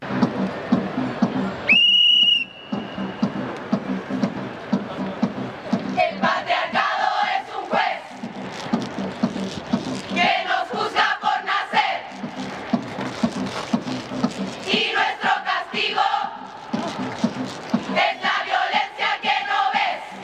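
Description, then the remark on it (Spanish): A large crowd of women performs the protest chant 'un violador en tu camino', denouncing violence by the carabineros against women. They chant in unison, their voices rising and falling in rhythmic bursts, with a sharp whistle cutting through near the start and steady outdoor noise beneath. “Ellas lo cambiaron, le pusieron un violador en tu camino para señalar este, la violencia de los carabineros hacia las mujeres.”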